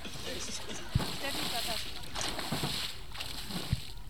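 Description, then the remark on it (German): Water sloshes and splashes in broad, irregular bursts, a few sharper slaps standing out, as three friends swim and move about in cool lake water; faint voices blend into the background. “Die drei Freunde der jungen Frauen lassen es sich in der Zwischenzeit noch einmal im kühlen Wasser gut gehen”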